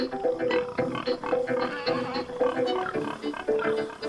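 A crowd of pigs grunts and squeals at feeding time in a steady, overlapping chorus, loud and continuous throughout with no one speaking.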